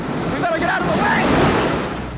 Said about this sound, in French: Ce que vous venez d'entendre, c'est l'effondrement de la tour sud qui s'affaisse la première dans un déluge de feu, de débris, de cendres, de marbre, d'acier.